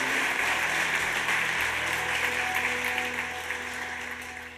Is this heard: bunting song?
no